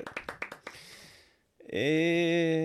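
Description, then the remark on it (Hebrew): A quick burst of about six sharp birthday claps in a steady rhythm fades out, and after a brief gap a loud, sustained buzzy tone takes over to the end. “שבוע הבא אני בן 48, כפיים על היום הולדת.”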